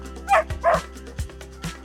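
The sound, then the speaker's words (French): A small dog gives two quick, high-pitched yappy barks in the back of a family's car, followed by a few soft low thumps over a steady faint background hum. “Bienvenue à toi, petit chien. Tu vas t'appeler Saxo.”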